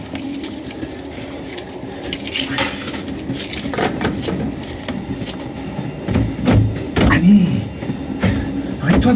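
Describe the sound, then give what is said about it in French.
The 8 o'clock train rumbles steadily along the rails, with a continuous low roar, rattling metallic clanks and occasional brief squeals from the wheels throughout. “Le train de 8 heures.”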